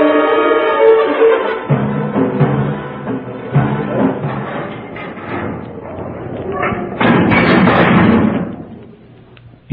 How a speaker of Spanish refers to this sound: Tras de Porfirio se cerraron los cierros del presidio. Esta vez no había esperanza de escapatoria alguna.